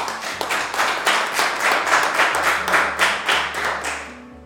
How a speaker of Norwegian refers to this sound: Det er tradisjon med applaus på siste telling.